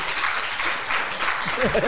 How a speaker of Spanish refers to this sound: ¿Aprendimos? Sí, le damos un aplauso con mucho cariño a la doctora